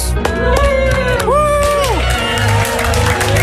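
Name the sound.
studio audience applause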